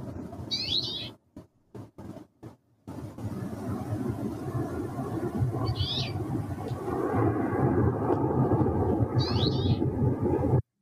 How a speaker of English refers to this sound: can you play the example of an avalanche